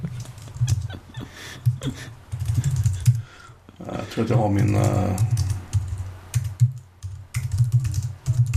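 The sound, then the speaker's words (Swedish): Rapid computer keyboard typing clatters in irregular bursts of sharp clicks as a man live-hacks at a computer, speaking hesitantly over it in places, with a stretch of talk through the middle. “jag sitter och live-hackar lite, ursäkta.”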